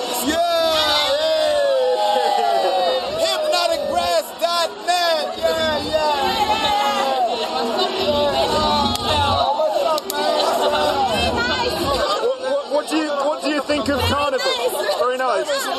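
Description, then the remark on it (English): Dense crowd chatter fills the scene, many overlapping voices talking and calling out at once, with occasional whoops rising above the steady, loud hubbub of a busy street carnival. “What do you think of the carnival?”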